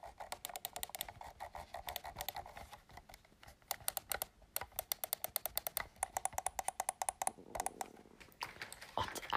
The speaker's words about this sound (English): Jetzt drücke ich auf meiner Maus herum.